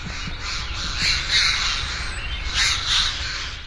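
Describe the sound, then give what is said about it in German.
Harsh, raspy screeches of a Eurasian jay, a few rough calls in two clusters over a steady low outdoor rumble, clear, with no one talking. “Das kann ein räumliches Gedächtnis sein, wie es Eichelhäher mitunter brauchen.”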